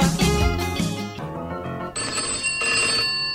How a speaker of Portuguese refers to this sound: Eita, que esse telefone tá pior do que telefone de motel em dia dos namorados. Não para de tocar.